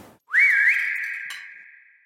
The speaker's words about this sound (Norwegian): Og det var jo mye sånn stemmesorg, som det heter, så jeg måtte jo få, eh, få attention. Så jeg plystret. Så ble det helt stille.